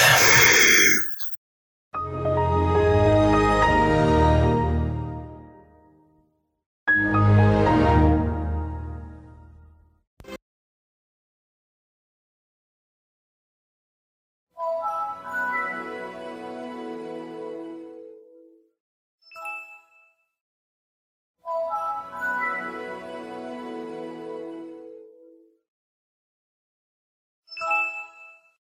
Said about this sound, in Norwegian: var lyden av eh, Windows XP, som kom ut i 2001. Et kjempebra operativsystem. Og det andre var Windows Vista, som kom ut i 2007. Også et veldig bra operativsystem.